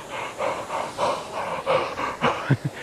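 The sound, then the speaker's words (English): Fast, heavy breathing through an open mouth: about eight rhythmic huffs, ending in a couple of sharper gasping breaths, as someone imitates panting to cool a mouth burning from a tiny bit of chili pepper. “just breathing through my mouth, trying to cool down the heat from the pepper,”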